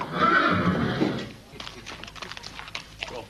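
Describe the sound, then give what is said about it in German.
A horse gives a loud, drawn-out whinny, then its hooves clip-clop in an uneven rhythm as it moves. “Es geht um ein Pferd, das rechnen konnte.”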